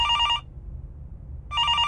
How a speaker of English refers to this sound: Just when Inspector Singh finished his sentence, the doctor's phone rang. The doctor picked up the phone